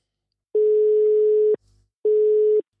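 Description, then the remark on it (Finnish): An outgoing phone call's ringing tone, calling sports director Harri Aho: a steady, loud electronic tone sounds for about a second, pauses briefly, then starts again, with no voices present. “tänään tehdään sellainen juttu, että soitetaan tuolle urheilutoimenjohtaja”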